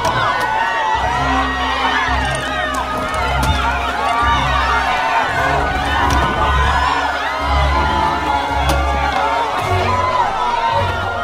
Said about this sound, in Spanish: Supongo que algo así debieron de gritar mi padre y mi hermano Mircea cuando les matasteis a traición.